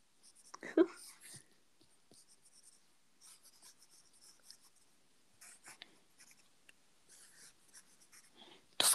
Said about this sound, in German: Niemand will dein dummes ASMR hören. Hört, also, hört ihr das die ganze Zeit? Ja, ein bisschen.